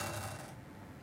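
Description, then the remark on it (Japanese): Three dice rattle and clatter inside a small ceramic cup like a teacup, a brisk shake lasting about a second, bright at first and then settling into softer knocking. No voices. “僕はねサイコロ3つが好きなんですよ、うん、この中にねねこれ湯飲みみたいなもんですから、はい、こうやって。”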